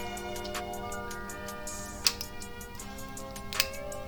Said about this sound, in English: Now it is a, a twist off top, so we're not gonna get that beautiful popping sound, but see if we can get this twist.